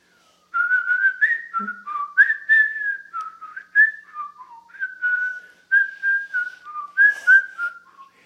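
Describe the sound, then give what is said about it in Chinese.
Someone whistles a lively tune imitating birdsong, trilling and warbling through quick rising and falling phrases with short pauses, bright and clear with no talking. “每次听到小鸟唱歌，他就会跟着一起用口哨来跟他们一起唱。”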